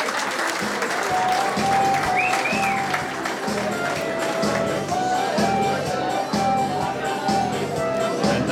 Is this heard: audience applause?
yes